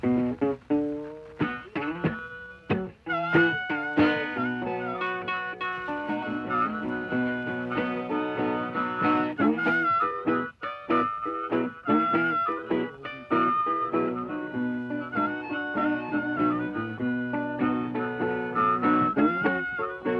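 A raw, old-sounding blues performance: a wailing, bending harmonica line rides over steady plucked guitar strums, playing continuously and fairly loud throughout with no voices.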